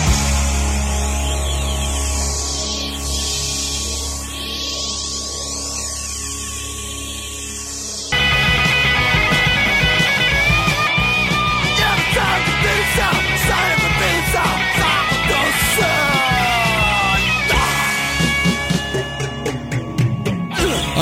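A punk rock song played from an album on the radio show Rock School opens with about eight seconds of warbling, swooping electronic tones over a steady hum, then a loud, dense wall of distorted guitars and drums crashes in and drives on.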